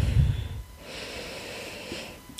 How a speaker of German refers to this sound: Jetzt atmen wir tief ein.